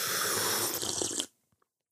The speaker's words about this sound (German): Ähm, ja, oder hier an dem äh, T-Schlürf-Sound.